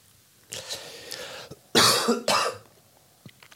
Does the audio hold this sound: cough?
yes